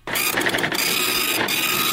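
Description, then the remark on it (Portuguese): A small receipt printer whirs steadily as a ticket feeds out, a continuous mechanical buzz with brief ratcheting bursts near the start and again toward the end; no one speaks. “Peraí, tá saindo mais um aqui.”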